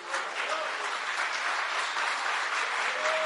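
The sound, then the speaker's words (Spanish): An audience bursts into steady applause for the Lord, a dense wash of clapping that holds at an even level for a few seconds, with faint voices calling out underneath. “¿Cuántos dan un buen aplauso al Señor?”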